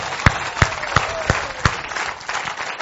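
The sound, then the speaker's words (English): A church audience bursts into loud, dense applause, a 'ruckus clap' instead of a golf clap, a steady wash of many hands clapping with a few sharp, louder claps popping out, sustained for about three seconds with no speech. “Instead of a golf clap, let's do a ruckus clap.”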